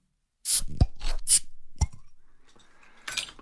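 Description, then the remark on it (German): Crisp handling noises with a couple of sharp pops and short hissing bursts, like a drink bottle being cracked open and fizzing, with no talking. “Ja, und damit äh, können wir an der Stelle einfach zum einen schon mal auf Wiedersehen sagen, aber mit dem Getränk diese Folge auch beenden, über die wir gesprochen haben.”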